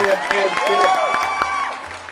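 A short burst of applause, scattered claps mixed with crowd cheering and a few whoops, loud, fading out after about two seconds.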